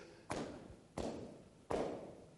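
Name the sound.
knocking on a door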